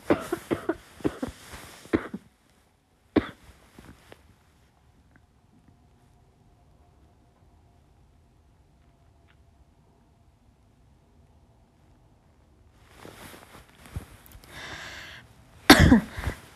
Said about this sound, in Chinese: 然后我我实在咳的有点太厉害了，然后，哎呀，我就是，我就说两句话就要咳嗽，等我一下。